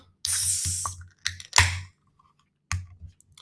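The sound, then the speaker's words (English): A large crowler can of blueberry wheat ale from Reed City Brewing Company, Michigan, cracks open with a loud, sustained hiss of escaping gas, then a few sharp metallic clicks and shorter fizzing bursts. No one speaks. “so let's crack this one open.”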